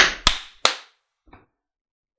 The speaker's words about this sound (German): Ich möchte jetzt so. doch noch einmal klatschen, weil wir das am Anfang vergessen haben, damit man es dann doch noch synchronisieren kann halbwegs. Eins, zwei und klatsch.